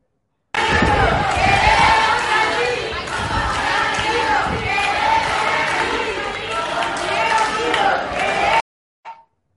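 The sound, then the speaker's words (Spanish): A crowd of detained minors screaming desperately in a video, loud overlapping high-pitched cries and shouts that run continuously for about eight seconds, then cut off abruptly, followed by a brief faint noise. “Uno de los vídeos, eh, fíjense el grito desesperado de los menores que están retenidos de forma ilegal, según advierten algunos padres que ya han iniciado acciones legales contra el gobierno balear.”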